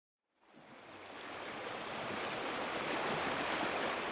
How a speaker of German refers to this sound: Wassermassen drängen sich durch die Landschaft. Mal als in der Sonne glitzerndes Band, mal als graugrüner, tosender Strom. Immer weiter dem Meer entgegen.